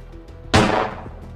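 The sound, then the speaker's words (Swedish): A single loud pistol shot, fired by Olavi Runolinna at a woman's neck, cracks out abruptly, its sharp blast trailing off in a short, noisy decay, with no voices and only a low background hum before and after. “Han tar fram pistolen. Han siktar mot hennes nacke. Han trycker av.”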